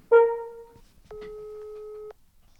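A short electronic chime fades out, then a single steady telephone ringing tone sounds for about a second as a call is placed, clear with no voices.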